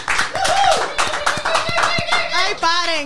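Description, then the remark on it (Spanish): Steady, dense audience applause for about three seconds, many hands clapping at once, with high whooping and cheering voices rising over the noise near the end, welcoming special guest Cristal Fonrodona to the show. “Un fuerte aplauso para Cristal Fonrodona.”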